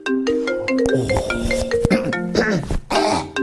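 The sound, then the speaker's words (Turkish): A phone ringtone plays a loud, busy electronic melody of stacked tones that shift pitch quickly, filling the whole moment with no talking over it. “E, bir saniye telefon geldi.”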